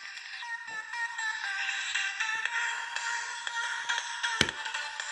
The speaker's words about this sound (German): Oh, scheiße, Mann. Dieses Mikrofon knallt dagegen.